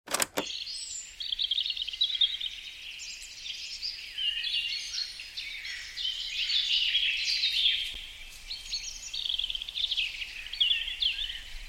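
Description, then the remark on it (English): Many birds chirp and trill continuously in a forest chorus, overlapping calls, over a soft steady background hush of leaves stirring in the wind, recorded in the Blue Forest in Halle, Belgium. No voices. “Here you can hear the beautiful sound of birds chirping, and if you listen more closely, the leaves dancing in the wind.”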